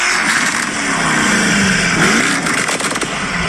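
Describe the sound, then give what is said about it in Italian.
A 750-horsepower engine revs loudly, its buzzy, rasping tone like a lawnmower, pitch climbing and dipping over a few seconds with crackling pops, no voices. “Pensa, è un so. taglierba con 750 cavalli.”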